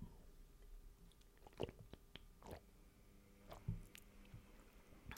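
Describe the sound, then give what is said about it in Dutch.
Someone takes a quick sip of water: soft wet mouth clicks and a couple of gulps, faint and brief over a quiet hum, with no talking. “Ik drink even snel een slokje water.”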